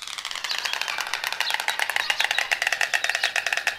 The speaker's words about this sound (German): Das ist ein Storch. Es ist ein Storch. Es ist ein Storch. Natürlich ist es ein Storch.